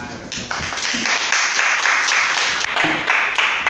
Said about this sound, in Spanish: Y Fusion, pues, un fuerte aplauso para Fusion.